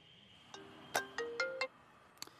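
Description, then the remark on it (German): A phone ringtone for an incoming call from radio colleagues plays a short melodic sequence of bright tonal notes, about five in quick succession, fairly clear against a quiet background, with no one speaking. “Zwischen meinen Berichten fürs Fernsehen rufen jetzt auch noch die Kollegen vom Radio an.”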